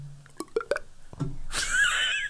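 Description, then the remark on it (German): A voice mimics water pouring into a glass: a few quick rising mouth pops like drips, then a steady breathy hiss with a climbing whistle-like tone as the glass fills. “Das ist richtig Wasser ein, einlaufen lassen in Glas.”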